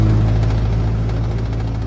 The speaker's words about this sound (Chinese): 载着鲁猪猪的遥控飞机越飞越远，渐渐的，飞机的轰鸣声也听不见了，四周变得静悄悄的。